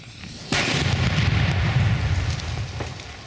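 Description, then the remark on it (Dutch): A single powerful blast of heavy illegal fireworks erupts suddenly. It is blowing apart six telephone books taped together on a small square in the Netherlands. A dense, sustained rumble and crackling debris roar follow and fill the remaining seconds. It is loud, with no voices. “In een andere video knalt hij zes op elkaar getapte telefoonboeken uit elkaar.”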